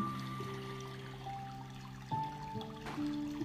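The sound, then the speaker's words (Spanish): Flowing, trickling water with a bright, ringing quality, as if poured steadily, its pitch shifting in a few small steps. It's soft and continuous, with no one speaking. “Nos conectamos con el sonido del agua.”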